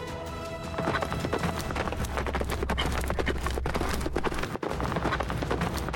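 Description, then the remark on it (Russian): Rapid, rhythmic hoofbeats of the centaur Fol galloping at full speed toward a crevice, loud and driving, with a low rumbling underneath and a brief dip near the end. “Сказка, услышанная Фолом в детстве, удвоила его силы, и он во весь опор помчался к расщелине.”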